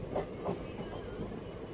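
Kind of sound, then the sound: vehicle, train running on rails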